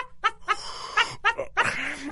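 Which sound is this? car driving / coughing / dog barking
dog barking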